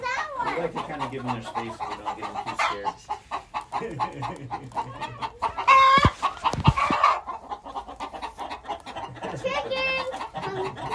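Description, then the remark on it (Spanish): Chickens on a farm, where small children are trying to feed them, cluck and squawk repeatedly, with a louder burst of flapping and calls midway, while people talk in the background throughout. “Bueno, como pueden escuchar, nosotros estamos ahí justamente en la granja y estamos pues disfrutando de un día en la granja en donde hay niños pequeños que se montan ah, justamente a tratar de ir a dar de comer a las gallinas”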